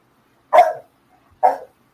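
Two loud, close dog barks separated by about a second of silence, each short and sharp with a quick decay.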